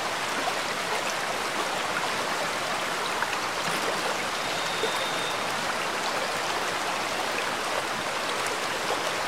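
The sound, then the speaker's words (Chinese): Rushing water of a waterfall pours without a break, a dense, steady hiss with a bright, splashy top and a soft low rumble, holding the same level throughout with no voices. “你可以尝试着把你的想法全部放空，只需要静静的感受水流的冲刷就可以了。”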